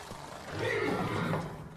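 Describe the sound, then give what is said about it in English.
A stallion whinnies once, a shaky, wavering neigh that swells in the middle and trails off, with no talking over it. “So I want you guys to get a good look at my stallion here.”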